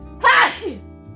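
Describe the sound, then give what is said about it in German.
A single sharp sneeze bursts out loudly, a brief explosive blast followed by a short falling exhale and faint background hum. “Gesundheit.”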